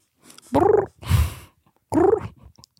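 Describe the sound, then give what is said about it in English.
A voice imitates a dolphin with three short bursts: two squeaky, wavering chirps with a rougher, raspy burst between them, no talking around them. “You know Flipper the dolphin? It's a dolphin. No, that's Ines.”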